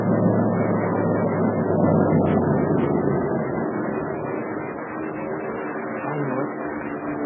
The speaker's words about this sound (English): Come on. Come on, let's get out of the way. The driver says those are invader planes.